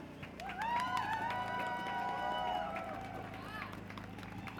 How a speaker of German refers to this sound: Bitte gebt doch mal einen Applaus für die Leute.